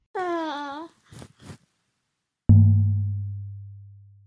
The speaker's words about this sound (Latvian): Mans bērniņš ir pamodies.